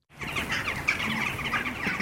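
Crows calling in a busy, overlapping chorus in the small German village of Keinberg, harsh caws layered continuously over a low outdoor rumble, moderately loud with no voices.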